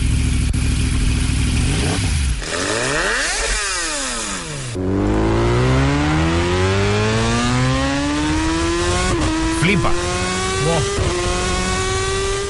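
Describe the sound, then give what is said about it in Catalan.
A loud superbike engine revs hard, its pitch sweeping up and down through several sharp throttle blips before climbing in a long, screaming rise as it accelerates through the gears. “imitant el so d'una superbike, Ara. que per si no sabeu com sona, sona així.”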